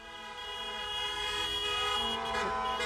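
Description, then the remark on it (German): Car horns honk continuously in a dense, overlapping chorus as motorcades drive through the streets celebrating the arrival of the D-Mark in the GDR on the night to 1 July, several steady tones blaring at once over a low rumble of traffic, with pitches shifting slightly as vehicles pass. “Autokorsos fuhren hupend durch die Straßen.”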